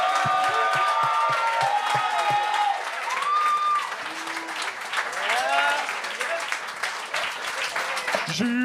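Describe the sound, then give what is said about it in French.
An audience bursts into sustained applause with loud cheers and whoops as the second guest, a judge, is introduced; a dense wash of clapping and shouting voices throughout, with some excited calls rising above the noise. “Faites un maximum de bruit pour notre deuxième invité, notre juge”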